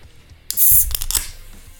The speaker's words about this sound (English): There you go. First can's opened. Ready to go.